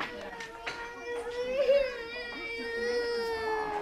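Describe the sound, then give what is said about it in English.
A young child cries steadily on the first day, a sustained high-pitched wail with wavering pitch that rises and falls, continuing without pause at moderate loudness with faint background voices. “Sometimes you have lots of tears on the first day.”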